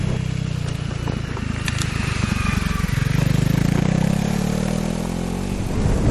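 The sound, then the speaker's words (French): A Honda CRF 300L motorcycle engine runs steadily for several seconds, its low throaty rumble rising slightly in pitch midway as if revving, with some mechanical clatter on top. “Honda vous propose la CRF 300L.”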